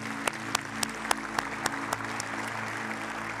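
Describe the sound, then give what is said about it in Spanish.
Sparse church audience applause for the Lord and fellow members after a prayer, just a few hands clapping in a steady, evenly spaced rhythm, about a dozen sharp claps over a constant low humming drone, with no voices. “Y la iglesia dice, ¿qué tal si le damos un aplauso al Señor y a nuestros hermanos?”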